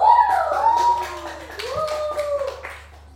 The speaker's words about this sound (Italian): questa è la nostra sigla.